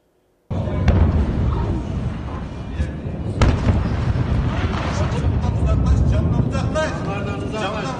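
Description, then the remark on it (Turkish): Explosions at a fireworks factory in Hendek, Sakarya boom out, with two sharp blasts standing out over a constant loud rumble of crackling and commotion, while voices can be heard underneath. “Sakarya Hendek'teki havai fişek fabrikasında daha önce 5 kez patlama meydana geldi.”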